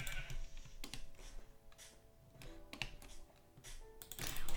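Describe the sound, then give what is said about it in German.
Faint, wavering bleats of a black sheep in a video game drift in the background, partly buried under steady keyboard clicking and tapping. No one speaks. “Oh geil, da ist ein schwarzes Schaf.”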